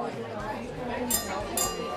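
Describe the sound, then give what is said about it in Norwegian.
Two bright, ringing clinks of glasses knocked together in a toast to Friedrich Nietzsche, about half a second apart, over a steady background of murmuring voices. “jeg vil skåle for Friedrich Nietzsche.”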